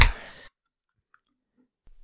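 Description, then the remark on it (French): A second kombucha bottle is opened with a short, sharp fizzing hiss of released gas lasting about half a second, followed by near silence with a couple of faint small clinks. “Est-ce que c'est temps que je prenne ma deuxième kombucha? Ben, je pense que t'es mieux de l'ouvrir puis t'hydrater un peu parce que ça va aller vite.”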